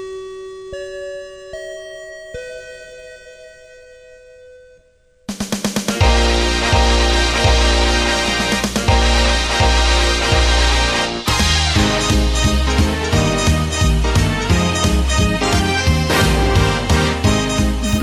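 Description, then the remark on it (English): A bell chime rings out a short sequence of clear, sustained tones for about five seconds, then loud full-band music bursts in and continues to the end. No one speaks. “That bell means this week's meeting of the After School Anime Club has come to a close.”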